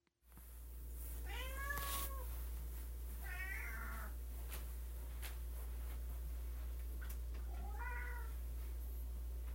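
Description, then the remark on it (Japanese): A cat begging for food on Christmas morning, a weekday, meows insistently three times, spaced a couple of seconds apart, with rising-and-falling harmonic cries over a steady low hum and quiet room noise. “クリスマスの朝ですが、えー、平日なのでいつもの朝です猫がご飯をねだっている鳴き声と旦那が咳をしています”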